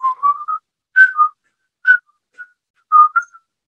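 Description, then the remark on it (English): A person attempts to whistle a short, halting tune in several separate bursts, each a few wavering tones with gaps between, clear with no talking. “Turns out you can't whistle either.”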